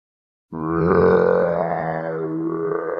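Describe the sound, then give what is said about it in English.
A deep, gravelly roar from an ugly ogre bursts in after a short silence as he sees the knights, holding loud and rumbling for about two and a half seconds, a voiced, growling bellow of anger. “The ugly ogre roared with anger when he saw the knights.”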